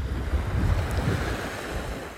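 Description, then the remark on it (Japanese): Sea waves rolling and breaking on a shore in an autumn wind, a steady low rumbling wash with wind noise buffeting the microphone, continuous, no voices. “白い歯をむき出して大波小波を僕にぶっつける僕は帰るとすぐに誰も慰めてくれないので海に慰めてもらいにやってきた海は実に優しく僕を抱いてくれた”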